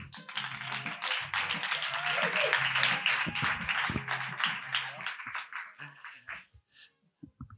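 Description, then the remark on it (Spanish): A burst of applause welcoming a guest: dense rapid clapping from several people with voices murmuring underneath, steady and fairly loud for about six seconds before trailing off into a few scattered claps. “Bueno, este podcast, un fuerte aplauso para el dueño y creador del podcast llamado Podcast a la Fuerza,”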